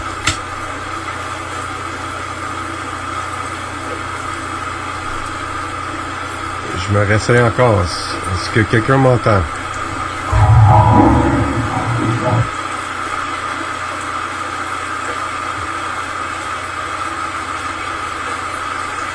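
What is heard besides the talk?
white noise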